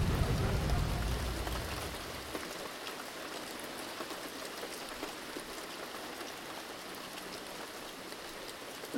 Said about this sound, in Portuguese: Quando começou, eu tava rindo, tipo, meu Deus, tá chovendo muito. E tava só, tipo, meio assustada. Chegou um ponto que eu tava meio desesperada com aquela chuva, cara. Tipo, não parava e cada vez mais forte.